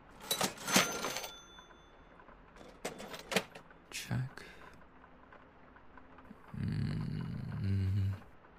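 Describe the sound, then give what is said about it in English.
A cash register being worked: a quick series of sharp mechanical clacks and clicks, then a brief pause before a longer rumbling slide, like the drawer rolling open. “Cleaning glasses, check. Cash register.”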